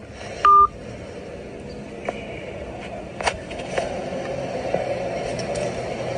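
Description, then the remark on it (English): A single short, loud telephone tone beeps near the start after a phone call is hung up, followed by several seconds of low hiss and faint line crackle with occasional small clicks. “He just hung up the phone.”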